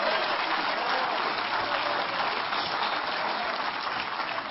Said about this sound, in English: If you're glad for that, somebody give Him a hand clap of praise.